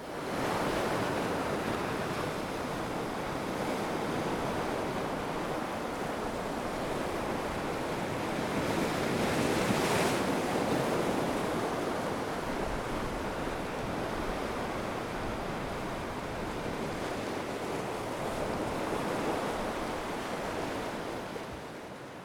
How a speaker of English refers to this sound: It is of the ocean waves crashing against rocks with subtle gusts of wind. I recorded it on 30th of December 2023 at Ness Point, which is the most easterly point in the UK in Lowestoft, Suffolk.